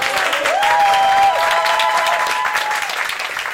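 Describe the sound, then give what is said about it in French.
A large audience claps loudly and steadily throughout for a new stage show, a dense wash of applause with a few higher tonal whistles or cheers rising briefly above it. “Alors merci de faire un tonnerre d'applaudissements au nouveau spectacle de la Natura”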